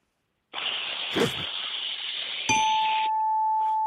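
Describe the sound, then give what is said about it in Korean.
A fifth-grade elementary school student imitates a rice cooker finishing cooking rice: a long, steady steam-like hiss, then a sustained high, beep-like tone that carries on briefly after the hiss cuts off. “밥솥이 이제 밥이 되는 소리예요?”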